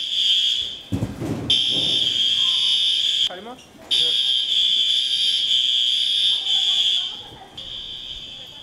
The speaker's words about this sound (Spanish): Pasadas las 10 de la mañana, las alarmas sonaron indicando la fuga de gas en la cocina.